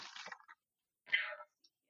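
Two short, crisp bursts of papery riffling as a deck of cards is shuffled by hand, moderately loud, separated by a brief pause, with no voices.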